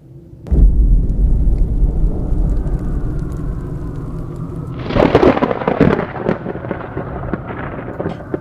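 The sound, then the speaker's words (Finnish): A sudden loud thunderclap opens into a long, deep rumble, then a second sharp crack breaks out and crackles away over a steady wash of rain, with no voices. “Tuollaisessa myrskytilanteessa saattaa matkustajasta joskus tuntua siltä, kuin ohjaamossa lentäjät oikein puskisivat tai työntäisivät koneen myrskyn läpi.”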